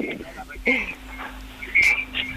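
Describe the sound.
Tinny, muffled voices over a telephone line from a caller in Vigo, with a radio playing near the caller's phone that echoes the speech back a moment later as a hollow, delayed repetition.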